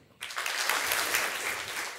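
An audience breaks into steady applause after a brief quiet moment, a dense, even patter of many hands clapping that holds at a consistent loudness throughout.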